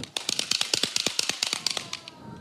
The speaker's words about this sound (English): so maybe you hear some good news and you want to clap